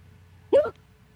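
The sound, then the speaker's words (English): A single abrupt hiccup, a short sharp vocal jolt, fairly loud, with a quiet low hum underneath and no talking. “I hate when I get hiccups.”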